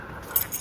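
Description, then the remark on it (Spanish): A brief metallic jingle of keys as a small key is handed over, with a few light, bright clinks bunched together in a fraction of a second, fairly quiet and with no talking. “Eh, mira, a ver, si quieres, toma, toma la llave del buzón para que puedas abrirlo cuando quieras, ¿vale?”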